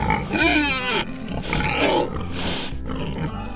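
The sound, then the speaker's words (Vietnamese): Breeding piglets for sale grunting and squealing, a run of loud, harsh snorts and rising squeals that follow one another in quick succession with no speech over them. “Này heo đẹp thế này cơ mà”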